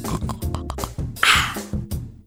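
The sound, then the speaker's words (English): A person imitates sipping coffee with their voice: a few short nasal grunts, then a loud airy slurp in the middle, followed by more brief voiced noises. “Drinking water. no, Ah. fine, I suck. It's coffee.”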